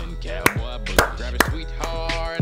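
Three sharp hand claps in a Radio Garage studio, given as a round of applause to introduce a guest, ring out at an uneven pace over a steady, busy music bed that continues underneath throughout.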